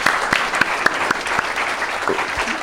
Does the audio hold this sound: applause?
yes